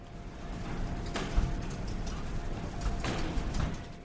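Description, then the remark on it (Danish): An airport baggage conveyor belt runs with a steady mechanical rumble and hiss, broken by a few sharp clacks and rattles as items bump along, about two clusters over a few seconds. “det er lyden af et bagagebånd i en lufthavn.”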